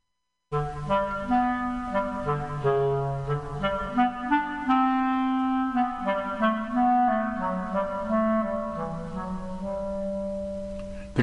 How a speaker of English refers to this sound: In the tale you are about to hear, each character is represented by a different instrument of the orchestra. The bird by the flute The Duck by the Oboe, The Cat by the Clarionet,